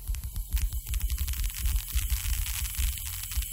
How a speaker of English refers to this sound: What you're actually hearing there are earthquakes. Uh, as cars and people stay off the roads, the delicate instruments that are used to detect seismic activity hear tremors that we couldn't hear before